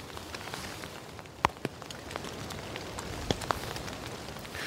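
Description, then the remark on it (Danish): Steady rain patters down on a hard surface, a dense wash of small drops with a few louder, sharper drips landing. No voices are heard. “Så om det har taget lidt af i regnen.”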